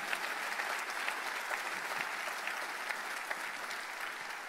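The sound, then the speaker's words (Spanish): A crowd applauds the Holy Spirit steadily, a dense wash of many hands clapping at once with scattered sharper claps standing out, sustained without pause and no voices audible. “Dele otro fuerte aplauso al Espíritu Santo.”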